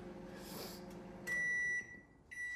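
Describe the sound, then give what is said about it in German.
A microwave oven heating leftover pasta with goulash hums steadily, then gives a loud, sustained electronic beep, pauses briefly, and starts a second beep. “Mikrowellen dauern einfach zu lange.”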